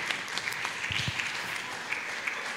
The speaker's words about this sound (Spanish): ¿Por qué le damos un aplauso? Es que estaba pensando. Vamos a darle un aplauso, hermano, ustedes, Moisés.